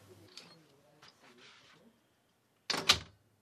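Soft, low voices murmur briefly, then after a short pause a door shuts with a single loud clunk and rattle of the latch as a man leaves the room through it, followed by quiet.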